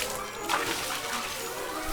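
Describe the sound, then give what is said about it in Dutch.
Water sloshes and splashes steadily as it is poured from buckets into a barrel, with a brighter splash about a quarter of the way in; a continuous liquid sound with no voices. “En deze bezems pakten nieuwe emmers en begonnen de ton weer te vullen met water.”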